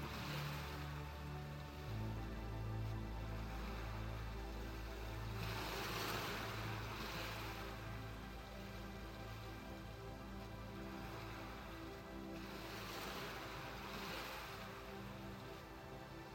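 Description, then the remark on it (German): Ocean waves wash onto the shore of a beach by the sea in slow, broad surges of rushing noise, swelling and fading about every seven seconds over a low, steady rumble, with no voices. “Die heranrollenden Wellen, wie sie mit einem Rauschen am Ufer auslaufen, wirken sehr beruhigend auf dich.”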